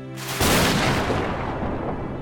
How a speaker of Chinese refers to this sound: 看到这个场景的宙斯觉得这样下去不是办法，于是他呼唤雷霆